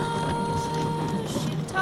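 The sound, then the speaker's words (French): A sleigh pulled by an advancing reindeer moves along steadily, giving a continuous grinding, scraping rumble with a faint whining tone running through it and a slight rise in loudness at the very end. “c'est bien le bruit d'un traîneau quand un renne avance.”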